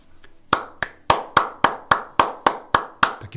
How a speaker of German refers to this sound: gibt es auch gleich mal einen Applaus von mir und zwar nicht für mich, sondern für die Glitzi, dass sie sich so viel Zeit genommen hat, mich da mal zu bewerten, beziehungsweise mir mal ihr ernstes Feedback zu schreiben.